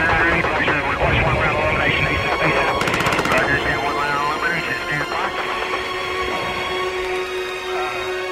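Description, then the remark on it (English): A short, rapid burst of AK-47 gunfire cracks out in a quick volley, set against a dense, busy backdrop with voices and radio-like chatter running throughout. “Uh, this is our challenge we've got go down AK-47 fire over.”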